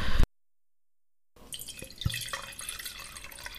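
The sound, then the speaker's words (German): Wine is poured into a glass: a short thump, a second of silence, then a steady, bubbling trickle of liquid with a few brighter splashes, moderately loud and with no talking. “ja, ich brauche mal kurz noch ein Glas Wein.”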